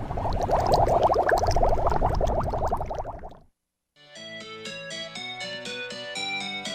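Dense, steady bubbling water gurgles for about three seconds, then fades into a short silence before a bright, tonal musical jingle begins. No one speaks.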